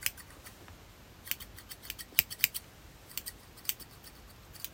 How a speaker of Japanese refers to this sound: ペンシル型のスモールダイオグラムのコンデンサーマイクなんですけどめちゃくちゃ繊細な音が取れるんでいいですね高感度かなり高感度なマイクですなので例えばこういうねハサミの音とか